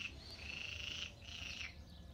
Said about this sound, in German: Ey, diese Frösche. Und wahrscheinlich sind die ganz klein, diese Scheißfrösche, gell? Können aber einen Alarm machen wie, wie 1000 Mann. 14 Stück hocken da. Und die waren, als ich hierher gekommen bin, waren die Mucksmäuschen still.